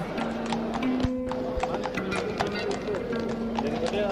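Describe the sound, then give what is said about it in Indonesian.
Horse hooves clip-clop in a steady, repeated rhythm at moderate volume, with sustained tones and a voice-like murmur running underneath, as the caliph Umar bin Khattab mounts his horse and rides off. “Kemudian, sang khalifah menaiki kudanya, lalu pergi.”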